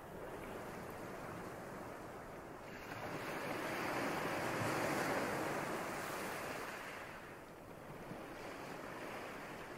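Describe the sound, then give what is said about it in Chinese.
Ocean waves break against the shore in a steady, hissing wash that swells louder through the middle as a wave rolls in, then recedes to a softer roar. No one speaks. “仔细听海浪的声音，”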